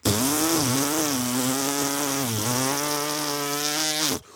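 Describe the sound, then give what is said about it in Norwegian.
A chainsaw cutting timber in a sunny forest in Nordfjord roars steadily for about four seconds, its pitch dipping briefly as if biting into wood, then cuts off abruptly. Loud, with no voices. “Det var motorsag og tømmer der, altså.”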